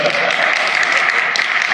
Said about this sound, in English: I always say that. I get the claps out of sympathy.